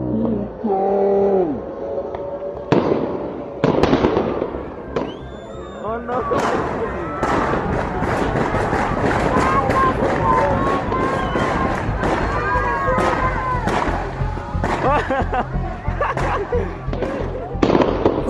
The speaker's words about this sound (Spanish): El sonido de los tiros coincide con este otro video grabado desde la calle 187. En menos de dos minutos se escuchan al menos 31 disparos.